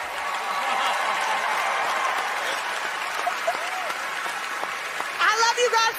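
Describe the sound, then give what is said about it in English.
A large audience applauds and cheers steadily for Emmy award-winning women from a television show who are going on a world tour, a dense wash of clapping with whoops and shouts rising through it, with a few louder cheers bursting out near the end. “Make some noise for my big girls.”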